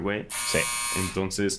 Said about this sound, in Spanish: eso fue mi timbre. Y no voy a contestar porque estoy grabando mi podcast.